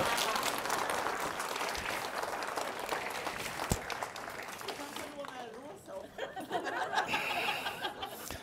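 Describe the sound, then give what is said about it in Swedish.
An audience breaks into a dense burst of clapping that fills the first several seconds, then thins out as chuckles and voices take over near the end. “En applåd för det där alltså.”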